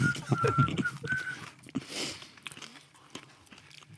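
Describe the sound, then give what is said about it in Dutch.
Crisp crunching of a rusk with sugared aniseed sprinkles, irregular bites and chews over a few seconds, with a faint whistle-like tone and quiet voices in the background. “Ja, beschuit muis die, die, staat ook wel redelijk bovenaan inderdaad.”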